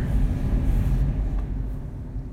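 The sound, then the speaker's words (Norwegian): A steady, deep rumble fills the inside of a moving Vy train in Norway on its way to Bryne, with a constant low drone and faint rattling textures, and no voices. “Enn så lenge sitter jeg på toget og koser meg over at Vy, å så flott navn, velger å promotere norskvennlig engelsk på vei inn til Bryne.”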